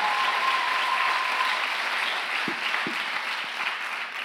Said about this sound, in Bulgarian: Защо не му дадеш едно истинско дарение на ръкопляскане, като че вярваш в това?